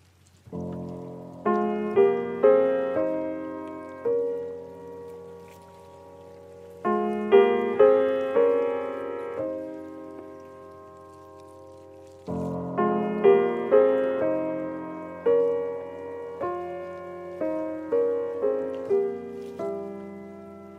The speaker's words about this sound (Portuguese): houve se de vez em quando uns ruídos, tipo uns booms, e, e estes ruídos, no vídeo vê-se bem, se, se tiverem curiosidade, são pedaços de gelo a serem desfeitos